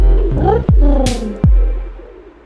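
Low, throaty pigeon coos roll in short warbling phrases, fairly loud, punctuated by two soft thumps and a brief airy whoosh, fading out at the end.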